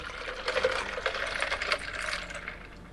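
A steady stream of liquid being poured into a glass, a bright splashing trickle lasting a few seconds, with no voices.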